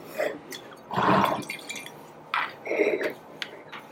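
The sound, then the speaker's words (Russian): Wine from a 2016 vintage pours into a small glass and a large glass in a few short gurgling bursts, with faint glassy clinks and splashes between them. “Это же тоже читар ты мне налил, Это маленький, читар, да. Маленький бокал и большой бокал.”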